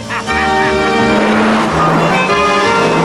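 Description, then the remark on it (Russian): A car speeds across several streets, its engine roaring loudly at high speed, its pitch shifting as it revs, with a dense, continuous rush of noise throughout. “На огромной скорости машина пересекает несколько улиц.”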